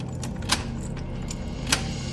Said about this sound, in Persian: خیالم راحت شد در حیاتو بستم و کلید انداختم که قفلش کنم